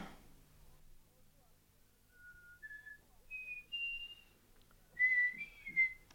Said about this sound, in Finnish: Sovitaanpa sokkeli, ettei vihellellä viran toimituksessa. Eihän tuollaisessa vikinässä pysty ajattelemaan.